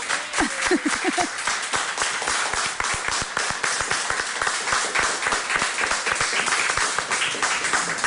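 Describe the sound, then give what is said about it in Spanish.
An audience applauds in farewell for about eight seconds, a dense, loud patter of many hands clapping at once, with a brief voice rising over it near the start. “Vamos a despedirnos con un aplauso, ¿no?”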